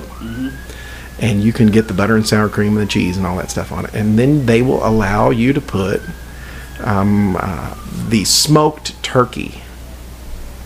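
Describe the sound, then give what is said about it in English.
An emergency vehicle siren wails in slow rising and falling sweeps, moderately loud, just outside a window in Las Vegas, running beneath a steady stream of conversation. “Yeah, these sirens you could probably hear and they are literally just outside of our window.”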